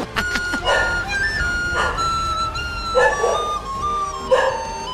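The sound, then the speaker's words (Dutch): A dog barks in short, high-pitched yips, about five or six bursts at irregular intervals, reacting to a jingle, with a steady whining tone running underneath and no one talking. “De hond slaat er ook op aan.”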